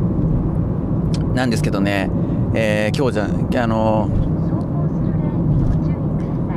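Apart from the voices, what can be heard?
car interior road noise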